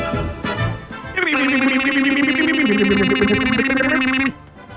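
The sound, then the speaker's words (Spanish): Two voices, one from Mexico and one from Chile, mimic a double alarm in unison on a count of three, holding a loud, steady electronic-style wail for about three seconds, with the pitch stepping partway through before both cut off abruptly. “la pregunta del día de un país generoso que parte con hoy una doble alarma Thompson absolutamente latinoamericana”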